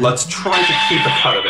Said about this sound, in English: That was a phone.